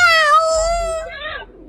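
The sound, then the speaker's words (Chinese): A single drawn-out meow from Kiki, a cat brought home by an old grandmother to chase out a mouse, fairly loud and high-pitched, holding steady before sliding downward and fading at the end, with no talking over it. “她带了一只猫回来。”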